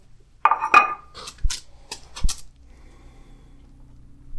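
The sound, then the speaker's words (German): An animal smacks while eating: a short cluster of wet, clicking mouth sounds over about two seconds, then near-quiet. “Man hört. Das Schmatzen. Also ich glaube, man hat es gerade gut gehört.”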